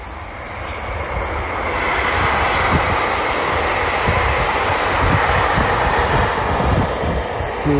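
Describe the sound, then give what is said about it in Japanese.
A train rumbles past in Hokkaido, Japan, a steady broad roar with rhythmic low clacks of wheels over rail joints, sustained at fairly even loudness throughout, with no voices. “再び電車が流れていく音北海道の大地からお届けしてます”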